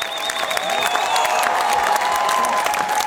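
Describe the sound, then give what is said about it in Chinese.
An audience at a film screening at the Cannes Film Festival applauds steadily throughout, a dense, even wash of many hands clapping at constant loudness, with faint high whistle-like tones and murmurs drifting over the clapping. “就是这个戛纳鼓掌，在我们内地互联网上看到的消息，经常是这个电影鼓掌几分钟，那个电影鼓掌几分钟。”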